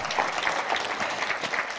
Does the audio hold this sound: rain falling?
no